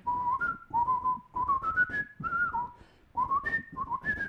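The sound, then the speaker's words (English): A person whistles a lively film theme tune, the melody rising and falling in short phrases with brief breaths between them, loud and clear with no one talking over it. “You can't just whistle things like that.”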